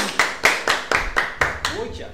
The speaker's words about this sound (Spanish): Gente, vamos a un, un aplauso. Bien.